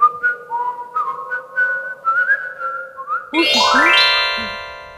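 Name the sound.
whistling a little tune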